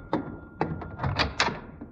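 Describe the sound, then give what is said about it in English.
Several sharp knocks rap on a wooden door in a loose, uneven rhythm, moderately loud, with no voices. “I'll see who's at the door.”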